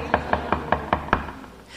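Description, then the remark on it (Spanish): Six firm knocks on a door in a quick, even rhythm, sharp, with no voices around them; a faint hiss lingers after the last rap. “Él llega como todo un caballero y dice Apocalipsis 3:20, mira que estoy a la puerta ahí”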